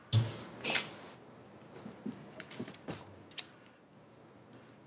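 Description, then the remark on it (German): Scissors snipping: two rustling handling bursts at the start, then a scattering of small sharp clicks and snips at irregular intervals, fairly quiet, with no talking. “So, ich brauche mal eine Schere.”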